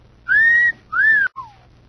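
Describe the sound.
Someone whistles: two loud, sustained tones that arch gently, then a short downward-sliding note, with no voices.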